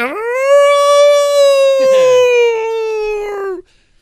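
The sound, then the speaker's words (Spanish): A person's voice imitates a ghostly howl: one long, sustained wavering "ooo" tone held for about three and a half seconds, loud, with a brief breathy noise partway through, then silence. “Hay este, luces que se van a las casas, son como fantasmas. Así.”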